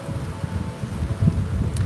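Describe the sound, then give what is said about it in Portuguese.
A low, blustery rumble of wind buffeting a mobile phone's microphone, the phone resting on top of a backpack, rising and falling unevenly for a couple of seconds with a stronger surge near the end. No voices. “Vem um vento aqui, ia derrubar meu celular, porque está em cima da minha mochila, vai ficar um pouquinho mais alto aqui.”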